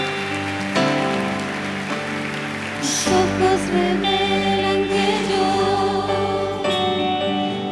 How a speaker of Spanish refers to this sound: ¿Qué tal si le damos aplausos para ellos, para felicitarlos? Aleluya, gracias Jesús.